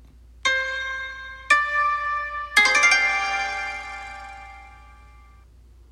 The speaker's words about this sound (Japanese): これまさに正月か三が日ぐらいまでしか、まあ、使えなさそうみたいな和風っていう音でしょ